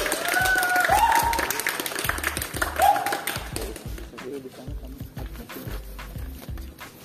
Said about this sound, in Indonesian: marilah kita langsung sambut saja dengan hangat dan juga dengan uh, tepukan yang meriah dari teman-teman semua.